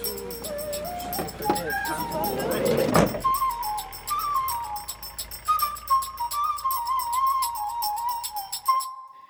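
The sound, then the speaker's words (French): A van door shuts with a single solid thump partway through as passengers set off for Bonn, amid rapid steady clicking of a seatbelt being fastened and a high, wavering whistle-like melody that continues afterward, with some faint background voices. “Hein il va, il va le fermer. Hein. Non, non, parce qu'il veut euh, avoir euh, l'enregistrement de la voiture. Une ceinture, quoi”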